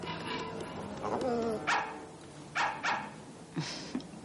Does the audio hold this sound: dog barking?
yes